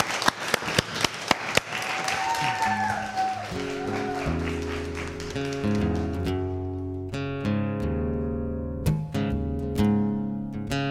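An audience at a Radio Skorbota stage show breaks into applause, a dense crackling wash of clapping with a few sharp individual claps, fading over a few seconds as sustained musical tones rise and take over.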